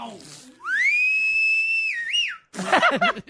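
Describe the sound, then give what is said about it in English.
A loud, clear human whistle rises, holds a long steady pitch, then warbles and drops; a burst of laughter and voices follows right after. “And I want you to try that same whistle you just did.”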